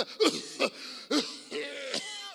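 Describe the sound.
A voice imitates a small, feeble cough of a person sick with COVID: four short throaty bursts at uneven intervals, fairly soft, with breathy, wheezy voicing trailing between them.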